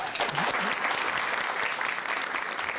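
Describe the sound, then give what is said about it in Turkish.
Steady audience applause fills the whole stretch, a dense, even patter of many hands clapping at once with no pauses, fairly loud throughout. “Alkışlarla serenleri uğurlayalım.”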